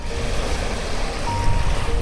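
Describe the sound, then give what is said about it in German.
Baltic Sea surf roars steadily and loudly, a continuous wash of waves breaking on the shore with some wind rumble and no voices. “Es gibt einmal das Meer, das finde ich super.”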